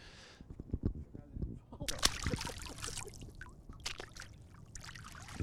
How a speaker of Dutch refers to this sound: 50 kilometer verderop, de grootste plas in onze provincie, de Vinkenveense Plassen. Nou, eens even voelen aan het water.